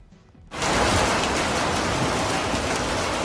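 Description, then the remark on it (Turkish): Heavy June rain in Ankara, Turkey, comes on abruptly after a brief quiet moment, then pours down in a steady, dense roar of hissing drops, with no voices. “Adeta gökten yağmur yağdı.”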